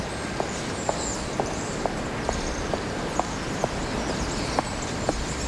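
A woman in high heels approaches and passes behind on a small street, rue de la Viabère, Lyon 3rd, around 1 a.m. on a cold night: about eleven sharp, evenly spaced clicking steps at a brisk pace, over a steady hiss with faint high chirps of a small group of birds in a tree.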